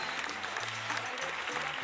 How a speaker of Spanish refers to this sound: que son largos estos aplausos.